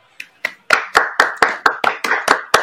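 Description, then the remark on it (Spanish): A stadium crowd at the Nuevo Gasómetro claps in unison for Ortigosa after his goal puts San Lorenzo 2–1 up on Huracán in the clásico, about a dozen sharp, loud claps in a steady quick rhythm, each with a short ringing tail. No one speaks. “San Lorenzo 2, Huracán 1, se besa la camiseta Ortigosa, se ganan los aplausos.”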